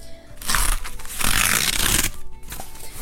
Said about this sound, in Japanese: というわけで、参考文献、たった1冊しかないんですけど、購入しました。その開封をします。じゃーん。